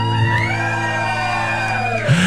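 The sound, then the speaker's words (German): An audience at a rap cypher lets out a loud, sustained collective shout on cue whenever a rapper's name is rapped, lasting a couple of seconds, voices held together before a final rising whoop at the end. “Also, immer wenn … kommt, müsst ihr alle schreien.”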